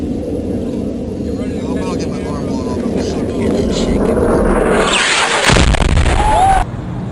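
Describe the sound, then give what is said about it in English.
A falling bomb rushes straight down with a building, shrieking roar for several seconds, then a loud explosion bursts out and rumbles for about a second before cutting off abruptly. “You hear like it screams in like that. It's coming down that fast. It comes straight straight down out of the air.”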